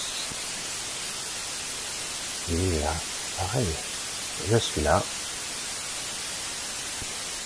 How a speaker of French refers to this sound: Les parasites vont disparaître.